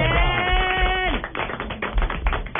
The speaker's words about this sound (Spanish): Un aplauso para Josimar que está con nosotros.